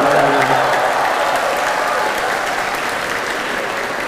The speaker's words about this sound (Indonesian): eh kenapa tepuk tangan nih? Kan Bahaya.